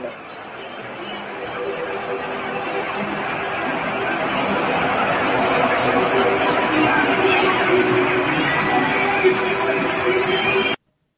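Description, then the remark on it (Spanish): A large stadium crowd shouts and chants together along to a song, in a dense, continuous roar that swells slightly over about eleven seconds. “Fíjense que como que la gente grita algo cuando la canción dice bule, la gente grita algo, no sé qué.”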